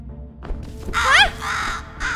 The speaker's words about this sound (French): Ne dis pas que tu as peur d'un simple oiseau. Non, non, il m'a juste surprise.